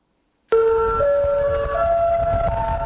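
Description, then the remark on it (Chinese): After a moment of silence, a loud tsunami warning siren on a small island in Japan bursts in at dawn after an earthquake off Torishima, south of Tokyo. It holds a steady wailing tone that steps upward in pitch, with a rough background noise underneath and no voices. “依照天海鱼肚白，刺耳的警报划破小岛的宁静。”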